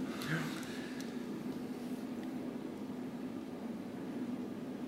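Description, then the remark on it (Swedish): Heavy rain pours steadily, a dense continuous hiss with a low droning hum underneath, holding even from start to finish without pauses. “Du hör, det regnar ganska, mm.”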